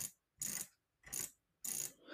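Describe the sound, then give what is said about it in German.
Three short bursts of rapid plastic ratcheting from a computer mouse scroll wheel being spun, each lasting about a third of a second with brief pauses between, fairly quiet; the mouse counts each spin as a single click. “Aber ich habe so eine Kackmaus. Wenn ich einmal so mache, das zählt alles, das zählt sozusagen als ein Klick an und nicht wie bei zum Beispiel bei der Rocket Cone oder bei Rocket Cane als mehrere Klicks.”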